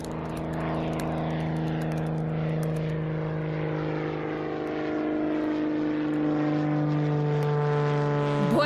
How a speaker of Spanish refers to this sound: vamos a tener que abordar un avión, una avioneta, movernos por los cielos, no es un gran jet turístico, sino pues esto, una de las avionetas que se usan frecuentemente para saltar,